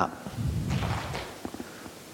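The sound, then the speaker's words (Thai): A group of people slapping their hands on their laps whenever they hear an odd number called in a number game, a dense flurry of soft, muffled pats that fades into a few scattered late slaps. “นี่มีกติกาอย่าง พอเราได้ยินเลขขี้เนี่ย เราเอามือตบที่ตัก เลขขี้ตบที่ตักนะ เลขคู่ตบตรงนี้ฟังให้ดีนะ”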